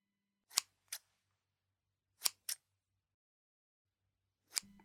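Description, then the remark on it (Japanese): Crisp scissor snips as a woman cuts with scissors come in quick pairs, five cuts in all with short pauses between, set against near silence and a faint low hum, with no one speaking. “私がズボンの両ポケットの中身を見せておどけると、彼女もいたずらっぽく笑いながら、再びハサミを手に取った。”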